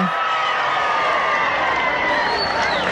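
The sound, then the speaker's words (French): A large crowd applauds and cheers as President Kennedy arrives with Congressman Jim Wright, in a steady, dense roar of clapping and shouting that stays loud and unbroken throughout, with indistinct voices mixed into the noise. “Vous entendez la foule, les applaudissements.”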